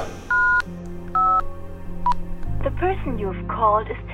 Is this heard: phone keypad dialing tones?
yes